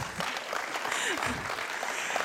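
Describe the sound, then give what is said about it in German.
An audience applauds with a dense, steady wash of many hands clapping that holds at an even, fairly loud level for the whole couple of seconds, with faint voices mixed underneath. “Jetzt können wir klatschen.”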